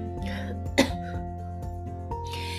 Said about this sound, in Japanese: 失礼しました。でね、咳がちょっと出始めると止まんなくなる。